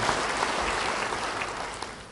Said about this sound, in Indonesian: Yang percaya, beri tepuk tangan bagi dia.